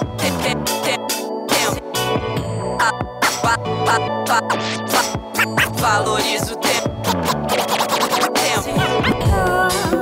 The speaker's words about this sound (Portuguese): com o scratch do DJ